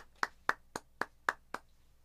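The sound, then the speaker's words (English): Six crisp hand claps in a steady, evenly spaced rhythm, fairly loud, with no talking, like one person clapping as mock applause. “Applause, applause.”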